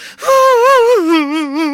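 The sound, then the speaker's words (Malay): A voice imitates a child's drawn-out wailing cry, starting with a sharp intake and sliding down in pitch into a wavering, sobbing moan, loud, with no other talk. “Menangis saya berhabis”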